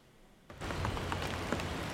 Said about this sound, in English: A rainy day in Auckland this afternoon, but is it enough?